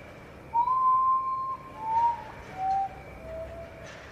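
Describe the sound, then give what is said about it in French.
A potoo's song: a series of four mournful, flute-like whistled notes, each shorter and lower than the last, fading away. Clear over a soft background hiss. “Je vous fais écouter à quoi ça ressemble le chant du Poutou.”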